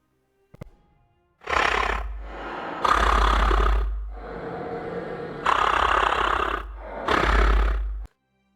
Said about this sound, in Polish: Czyjś oddech na karku.